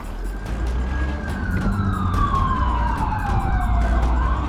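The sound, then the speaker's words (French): A police patrol car's siren wails over the low roar of its engine as it pulls away fast from the exit of Denton in pursuit of a Ford, its pitch sliding downward as the car speeds away, loud and steady against dense road noise. “Les patrouilleurs démarrent en trombe.”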